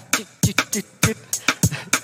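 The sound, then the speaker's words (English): Crisp, hissy hi-hat-like percussive ticks in a quick, uneven groove, about nine hits in two seconds, some landing with a soft low thump beneath; a four-thirds rhythm of three beats against four in the same span. Fairly loud, with no talking. “Hey, so I can even make you make a little hi hat.”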